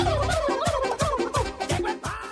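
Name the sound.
turkey gobbling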